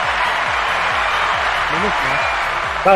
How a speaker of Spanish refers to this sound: Una pasada, un aplauso a Chet.